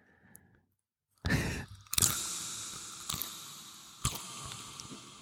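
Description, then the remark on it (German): Wet chewing and lip-smacking while eating crisps, a dense squishy stretch punctuated by a few sharper smacks at irregular intervals, fairly loud and with no talking. “Ja, solange du dich schmatzt, Geschmatze kannst du das machen.”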